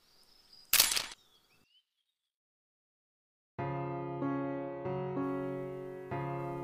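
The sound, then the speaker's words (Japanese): A single sharp camera shutter click sounds over a faint background, followed by a short silence before soft, sustained music begins. “彼女は一生に一回しかシャッターが押せない永遠カメラで、よりによって、しわくちゃの僕の泣き顔を撮って、行ってしまった。”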